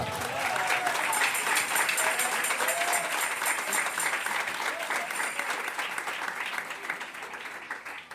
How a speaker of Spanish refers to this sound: Dele palmas al Señor en esta tarde.